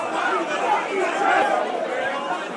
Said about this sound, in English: Referee not giving anything there. Crowd howling for a penalty. You can hear the howling